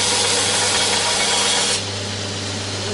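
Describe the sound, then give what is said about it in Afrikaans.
A sanding machine runs steadily with a constant motor hum while a piece of wood is ground flat on its top side, a loud, abrasive rasping that eases off partway through. Nobody speaks. “dit is om hom aan die bokant plat te maak en vir die krommings uh, gebruik 'n mens hierdie wiel om hom hier te skuur.”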